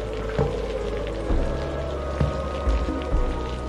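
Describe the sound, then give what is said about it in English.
Heavy rain pours down in a steady, dense patter, with a few louder drops or splashes standing out every second or so. Nobody speaks; the downpour fills the whole recording. “Only the howling of the wind remained, the violent patter of the rain, she invisible in front of me.”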